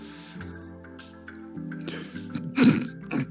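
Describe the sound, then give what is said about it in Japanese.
A single sharp sneeze bursts out near the end, fairly loud, preceded by a couple of softer breathy sounds, over a steady low musical hum in the background. “そういうね毎回こうくしゃみをするごとに Excuse me を言うっていう今僕シャした後にエクスキューズミーちゃってるんで、あの本当くしゃみする前にエクスキューズミーですね。”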